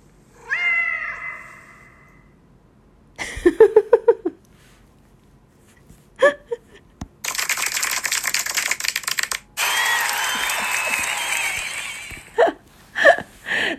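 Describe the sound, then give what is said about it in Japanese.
A short, quirky custom-made sound-effect sting: a cat-like meow (the voice of a person), rapid chirping bursts, then loud clattering typewriter-style noise and a hissing swell, ending in a few sharp pops. “オクラジオの初めての効果音ですそれではどうぞ”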